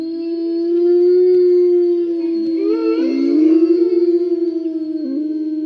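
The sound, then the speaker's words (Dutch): A sustained howl of real wolves from the nature film Wolf by Kees van Kimpen, with a steady, drawn-out pitch, joined midway by other wavering howls that rise and bend around it, forming a loud, overlapping chorus with no talking. “Echt wolvengehuil horen en zien we natuurlijk ook in Wolf, die bijna poëtische natuurfilm van Kees van Kimpen.”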